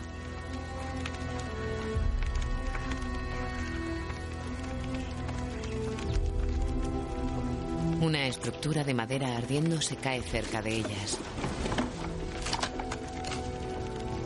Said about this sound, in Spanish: Un caballo galopa sin jinete.